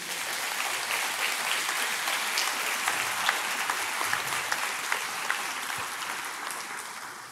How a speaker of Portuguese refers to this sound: Você pode aplaudir o nosso Deus?